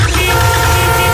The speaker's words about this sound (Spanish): Cuando se te gripa la moto en mitad de la calzada, suena así